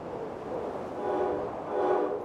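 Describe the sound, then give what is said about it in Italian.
A train carrying a car across the border from Switzerland into Italy in snow rumbles steadily along the tracks in a continuous low roar that swells twice, with faint tonal whines rising over the rolling noise. No voices. “Sempre sotto la neve riuscirono a caricare l'auto sul treno che li avrebbe portati oltre confine.”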